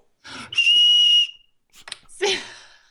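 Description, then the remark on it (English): A wiener whistle is blown once in a loud, shrill, steady blast lasting under a second, followed by a short breathy, noisy burst. “You want to you want to take good care of your wiener whistle.”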